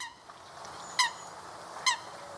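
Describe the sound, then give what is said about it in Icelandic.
A Eurasian coot, seen at Vívilstaðavatn lake before spring, gives two sharp, honking calls about a second apart, each a short harmonic burst standing out clearly over quiet outdoor background noise. “Þetta er bleshæna, hún sást á Vívilstaðavatni fyrir vor.”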